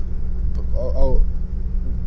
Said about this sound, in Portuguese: alguma coisa, o barulho do vento, a cidade acontecendo.